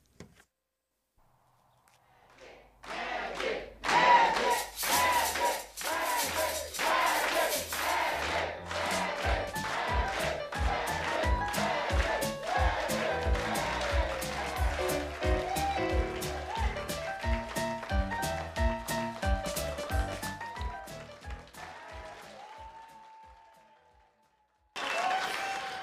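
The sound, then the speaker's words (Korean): A lively stage number from the finale scene of the film Bagdad Cafe, from its original soundtrack, with a crowd clapping, whooping and cheering loudly over the music, rhythmic claps punctuating it, before a brief pause and a final burst. “마지막 공연에 나오는 장면, 예, 예, 그 곡을 예, 들어보시죠.”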